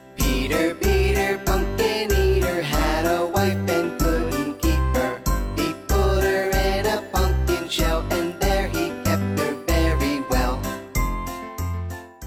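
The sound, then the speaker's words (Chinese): A bouncy tune of the Mother Goose nursery rhyme "Peter Peter Pumpkin Eater" plays with a steady, evenly spaced thumping beat under a bright, tinkling melody, holding a loud, constant level for the whole stretch. “我们先来听一下，那我们先来听一下。”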